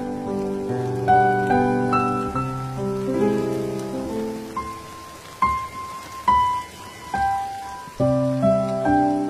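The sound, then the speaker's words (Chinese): Soft, steady drizzle patters beneath a slow, gentle piano melody, its sustained notes ringing out over the continuous hiss of light rain. “我在古都西安，每天晚上等你和我一起聆听下雨的声音。”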